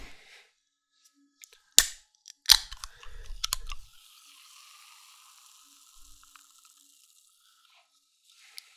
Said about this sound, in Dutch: Ik wil het blikjes gaan openen. Er staat lightly sparkling. Dus dat betekent dat hij een klein beetje bubbelt close enough for me.